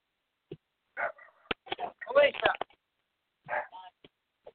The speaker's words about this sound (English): I apologize about the dog.